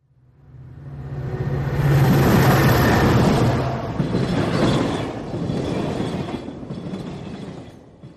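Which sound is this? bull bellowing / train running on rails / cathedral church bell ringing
train running on rails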